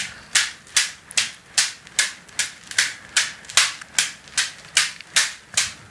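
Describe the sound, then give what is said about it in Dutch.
A whip swung around in circles strikes buttocks on each rotation, over and over in a steady rhythm, about fifteen sharp, bright smacks in six seconds, each with a quick fade. No one speaks. “Ja, nu draait ze de zweep rond, inderdaad. En tijdens elke omwenteling komt hij dus tegen de billen.”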